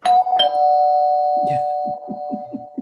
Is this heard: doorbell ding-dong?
yes